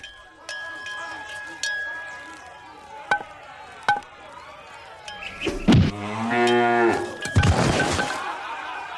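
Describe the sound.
A few sharp cracks and knocks ring out, then a loud, drawn-out cow moo with a second bellow close behind, clear over light background noise, as a cow at bat in the bottom of the sixth inning of a Little League baseball game is hit by a pitch.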